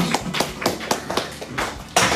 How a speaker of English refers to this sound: All right. Thank you. Round of applause.